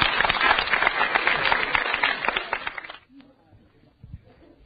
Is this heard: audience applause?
yes